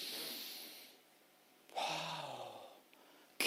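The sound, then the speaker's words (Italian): A person in an Italian sermon imitates a deep, drawn-out sniff, breathing in hard through the nose twice with a short pause between, fairly loud, with no talking, acting out God sniffing in the honour given to Him. “Dio annusa l'onore.”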